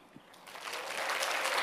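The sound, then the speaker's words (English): Audience applause for students after their presentation, swelling from a soft start into a steady, dense patter of many hands clapping, growing louder over a second and a half with no voices on top. “Can we just give another big clap to our students here?”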